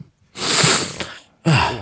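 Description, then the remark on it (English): A loud, sneeze-like sniffle: one long breathy burst of air through the nose, a brief pause, then a second shorter burst, with no talking. “I just uh, sneezed. not a sneeze, uh, a, a sniffle.”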